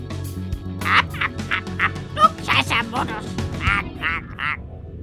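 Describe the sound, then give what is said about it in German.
A rose-ringed parakeet named Huxley, a slender light-green parrot with a red beak, gives a rapid series of harsh, grating squawks, about a dozen calls in quick succession, with a low murmur of background noise underneath. “Genauer gesagt geht es um Huxley, einen Halsbandsittich.”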